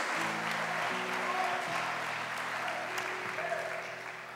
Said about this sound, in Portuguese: Então aplaudam o Rei dos Reis e o Senhor dos Senhores.